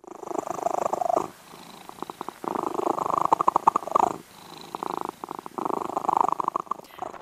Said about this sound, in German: Dieses Geräusch kennt ihr vielleicht, besonders wenn ihr eine Katze oder einen Kater zu Hause habt. Hm, das hört sich behaglich an, dieses Schnurr. Schnurren. Rrr. Ganz viel Rrr ist im Schnurren und da hört man auch schon dieses Rrr-Geräusch.